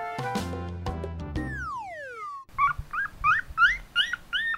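A short musical jingle ending in a falling glide, followed by a Thai dog barking: about six quick, high-pitched, yelping barks in a steady run, fairly loud, with no talking.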